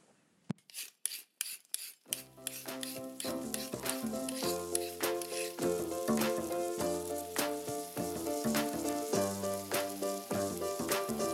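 Food crackles and sizzles in a hot pan, a few sharp pops at first, then a steady sizzle continues under a bright musical jingle that enters and plays over it.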